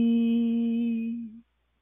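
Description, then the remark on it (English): A single voice sings one steady, sustained 'ee' vowel at a mid pitch, clear, holding evenly for over a second before cutting off into silence. “This is the sound of. Ee-”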